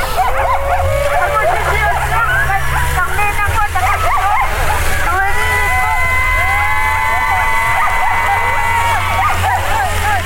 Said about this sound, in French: une course de chiens de traîneau